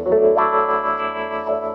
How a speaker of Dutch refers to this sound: Echt psychedelic sound. Mooi. Het chorus op mijn wa trouwens ook heel gaaf.